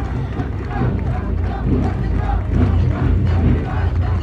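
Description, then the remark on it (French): A large crowd of Tunisians roars with some applause as Michel Debré and Jacquinot pass troops rendering honours, a dense, steady wash of many voices shouting and calling at once, with no single voice standing out for the whole few seconds. “Et que vous entendez peut-être actuellement crier.”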